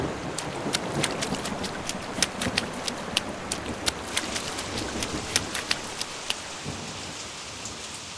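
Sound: heavy rain falling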